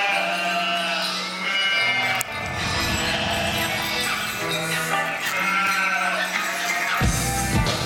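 Several sheep bleat loudly and almost continuously, their wavering calls overlapping one another for several seconds, with no pause between cries and no talking.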